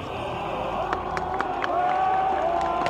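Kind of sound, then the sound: crowd, crowd cheering and applauding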